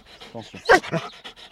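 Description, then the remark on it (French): A trained Belgian Tervuren dog growls and snarls on command in a string of short, rough bursts, with one louder, harsher snarl in the middle before the sounds trail off into quieter rumbles. “Et c'est un chien à qui on apprend à, c'est-à-dire à grogner et à sortir les dents.”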